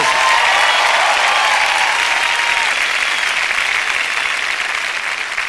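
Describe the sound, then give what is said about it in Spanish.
Sustained audience applause, a dense steady wash of many hands clapping at a loud, even level throughout, with no voices standing out. “Vamos, si va a aplaudir, tiene que hacerlo con más ganas.”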